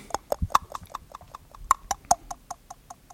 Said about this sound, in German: Ja, hier ist es ein Stift, mit dem ich auf etwas schlug und dann hatte ich auch verschiedene Sachen.